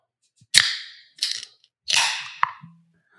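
Three sharp cracks, each followed by a bright hissing fizz, like beer cans being popped open, with a small click and a low hum near the end. No one speaks.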